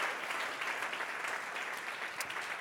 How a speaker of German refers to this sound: Und die feiern wir übrigens, lass uns mal den Erlangen nochmal richtig fetten Applaus geben, äh, by the way.